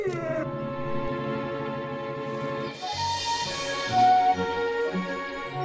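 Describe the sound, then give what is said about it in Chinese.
A dog howls in long, drawn-out wails rich in overtones, the pitch wavering and rising partway through, steady and fairly loud with no one talking over it. “听说狗对天气很敏感。”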